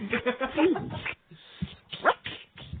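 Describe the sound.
A small dog whimpers and gives a few short, high yips in quick bursts, with a pause in the middle and a sharper cry near the end, mixed with voices.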